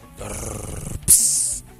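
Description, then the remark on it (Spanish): A dog cries out dramatically while its nail is being trimmed, a low, groaning whine lasting nearly a second, then a brief pause and a sharp, shrill yelp, fairly loud. “Eh, el video se convirtió en viral y lo vio 6 eh, millones de personas y alrededor 135 mil veces hasta el momento en usuarios que quedaron maravillados de la actuación del perro.”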